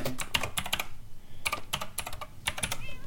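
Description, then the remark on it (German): Computer keyboard keys, including F1 or F2, clatter in quick, uneven bursts, several sharp clicks bunched together with brief pauses between them, moderately loud with no voices present. “Ah, du musst F1 oder F2 drücken.”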